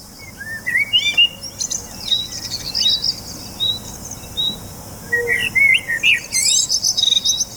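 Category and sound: bird, birds chirping and singing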